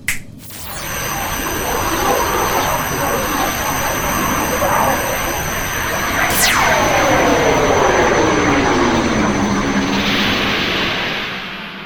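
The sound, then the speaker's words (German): A sci-fi teleporter beaming effect: a loud, sustained shimmering whoosh with steady high ringing tones, and midway a bright tone that sweeps steadily downward in pitch before everything fades out. “Und ja, da beamen wir uns jetzt hin.”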